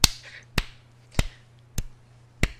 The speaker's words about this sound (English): That's that's me clapping.